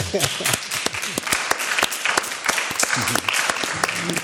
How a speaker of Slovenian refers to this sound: dajte jim zaploskati